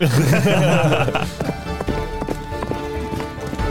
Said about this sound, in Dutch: Ja, uh, Q-paardgeluid.